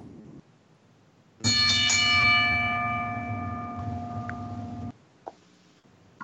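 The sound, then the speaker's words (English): A wrestling ring bell is struck once, loud, ringing with a bright metallic tone that hangs for a few seconds before cutting off abruptly. No one speaks over it. “ring the bell.”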